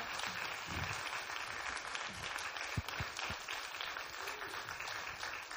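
An audience at an 18th anniversary church service applauds steadily, a dense wash of many hands clapping at an even level throughout, with a few sharper individual claps standing out. No one speaks.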